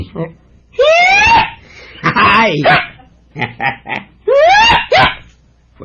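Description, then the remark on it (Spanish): A man lets out a string of loud karate-style battle cries, four or five sharp yells in quick succession with swooping, strained pitch. “Y solo con oírme el grito cae desmayado cualquier jodido, hombre.”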